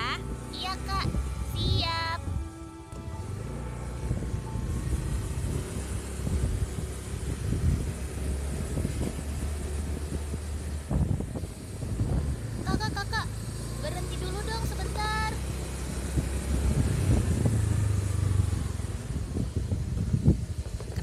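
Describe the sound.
A motorcycle rides steadily along a quiet road at night, its engine a constant low rumble mixed with rushing wind noise, while faint voices and brief tonal sounds pass by.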